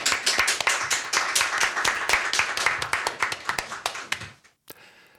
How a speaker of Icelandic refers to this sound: Takk fyrir ykkur. Ég held að við verðum að klappa fyrir þau.